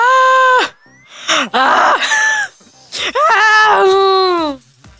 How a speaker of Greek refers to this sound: Παιδιά, είναι κραυγές.